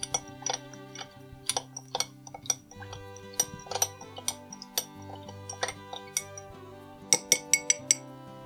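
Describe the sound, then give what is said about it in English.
A spoon stirs a cocktail in a glass, making a steady run of light clinks roughly every half second over a soft musical background, with no one talking. “And now we stir.”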